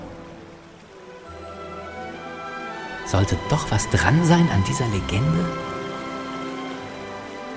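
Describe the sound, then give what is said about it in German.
Steady running water fills the background with a continuous rushing hiss from start to finish, while a voice speaks over it for a few seconds in the middle. “Aber woher kommt dieses Wasser?”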